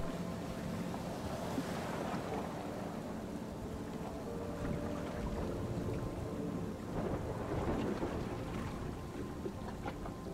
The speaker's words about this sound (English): With the end of this storm in sight, the waves now becoming calmer, the storm tapering off, and the rain